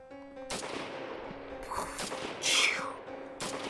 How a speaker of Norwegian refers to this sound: Her er det skudd. Veldig mye Uff.